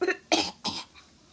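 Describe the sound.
A voice acts out a fit of coughing as the character Bajie climbs back out of the water in a Journey to the West story: three sharp, harsh coughs in quick succession, fairly loud, followed by a faint breathy trailing sound.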